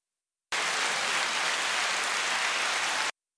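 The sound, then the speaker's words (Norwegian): A dense burst of audience applause, many hands clapping into a steady hiss-like roar for about two and a half seconds, beginning and cutting off abruptly, with no voices. “Applaus, gitt.”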